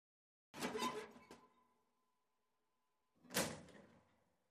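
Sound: front door opening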